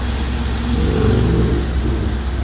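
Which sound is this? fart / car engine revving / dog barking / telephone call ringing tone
car engine revving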